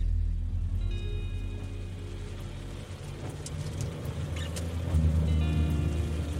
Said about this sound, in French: Encore un soir de pluie.